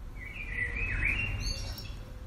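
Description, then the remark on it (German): Birds chirping and singing outdoors, a bright warbling call sweeping up and down over a steady low rumble of background noise, clear with no voices. “Also nicht komplett um Vogelgezwitscher natürlich, aber das, was man oder besser ich, hoffentlich nicht als Einzige, damit verbinde, ist nämlich Sommer.”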